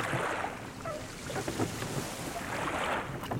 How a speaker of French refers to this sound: Une chaloupe s'est détachée et s'est approchée de moi